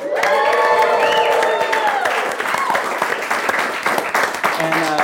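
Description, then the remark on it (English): A live crowd at Industry West in Soho cheers and applauds, with loud whoops and shouting voices rising over steady, dense clapping that keeps going for several seconds. “we are here live at Industry West in Soho. Make some noise, people.”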